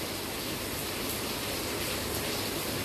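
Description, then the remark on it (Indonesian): Steady, even hiss of rain falling outdoors in the afternoon, a continuous wash of soft static with no distinct drops or pauses, moderately quiet and with no voices. “Di sini posisinya lagi hujan dan kedengeran gak ya suara hujannya?”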